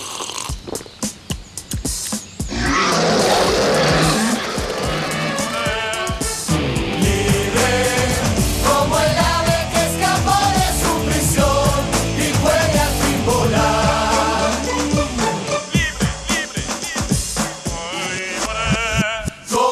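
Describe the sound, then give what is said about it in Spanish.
A bright, upbeat musical advertising jingle for a brand plays loud and continuous for about twenty seconds, with layered instruments and a lively melodic line. “Entonces, jingle musical, algo como esto. Escuchemos.”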